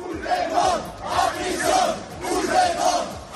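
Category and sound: crowd, protest crowd chanting slogans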